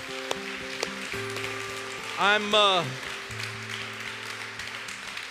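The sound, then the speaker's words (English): An audience applauds people as they sit down, in a steady, dense patter of many hands clapping that runs the whole time, while a man's voice briefly speaks over it partway through. “Come on, y'all give them a big clap as they sit down.”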